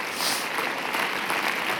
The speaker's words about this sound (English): If you commit to be resolute in letting the Lord be these things in your life, could you just give him a huge round of applause? and lift up your voice.